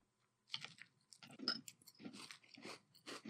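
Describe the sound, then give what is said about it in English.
Crunchy cereal in cold milk being chewed, a steady series of loud, crackling bites repeating in an uneven rhythm, with no talking. “You get a really good crunch initially.”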